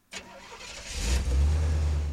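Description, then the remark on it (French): A taxi's car engine cranks and turns over with a sharp start on a street, then settles into a deep, steady rumble that grows louder and holds, with no voices. “Dans la rue, je hèle et monte dans le premier taxi libre, fermement décidé à aller frapper à la porte de la chambre du Ritz, que j'avais fui un mois auparavant.”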